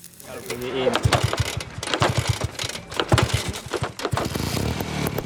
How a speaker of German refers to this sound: Der Motor ist ein Original aus einer uralten Vespa.